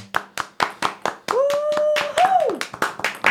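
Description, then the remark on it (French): Steady, rhythmic clapping, about a dozen sharp claps in even succession, with a long sustained voice-like cry rising and then falling in pitch partway through. “Vous voulez mettre des applaudissements, monsieur l'arbitre”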